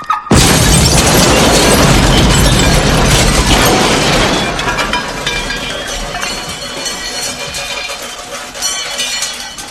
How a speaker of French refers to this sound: Ils ont plastiqué ma caisse